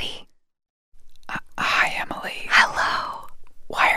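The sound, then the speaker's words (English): Breathy ASMR whispering from one or two voices, with hissy bursts of unvoiced speech broken by short pauses and a stretch of silence near the start. “we whispering? Because today's episode is about ASMR.”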